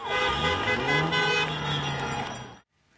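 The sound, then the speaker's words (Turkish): Car horns blare together in a sustained, overlapping chorus over a busy street in the United States, where thousands celebrated after Biden was declared president, loud and continuous for a couple of seconds before cutting off abruptly into quiet. “Korna sesleri, slogan ve şarkılara eklendi.”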